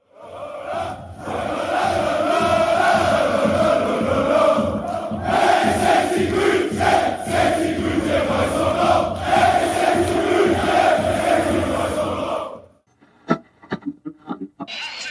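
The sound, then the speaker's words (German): A large stadium crowd of about 7,000 visiting Munich football fans chants loudly in unison on a Wednesday evening at the stadium in Aue, 500 kilometres from Munich, for about twelve seconds, a dense roaring wall of voices, then it cuts off abruptly, leaving a few faint knocks and scattered sounds. “7000 Löwen an einem Mittwochabend, 500 Kilometer von München entfernt und die 7000 sind fast doppelt so laut wie die restlichen 15.000 im Aue-Stadion.”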